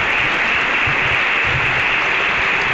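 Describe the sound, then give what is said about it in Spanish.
A theatre audience at the Teatro Infanta Leonor, standing along with the attending authorities, applauds the pregonero in thanks for his words, a dense wash of many hands clapping at once that stays loud and even throughout, with no voices rising above it. “Y las palmas de, agradecimiento al, pregonero por sus palabras”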